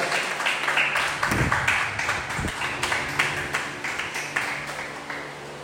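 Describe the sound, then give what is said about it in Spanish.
A crowd applauds God steadily during a Spanish-language sermon, dense overlapping claps from many hands filling the space at moderate loudness, with a few faint voices mixed in beneath. “Dale otro aplauso a Dios.”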